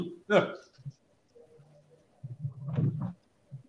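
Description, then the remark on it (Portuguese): Choppy, breaking-up voice from a remote call with someone in Tokyo: short distorted bursts of speech cut in and out between silent dropouts, with warbling, muffled fragments that are impossible to make out. “A gente está com tá, problema de tá, comunicação tá”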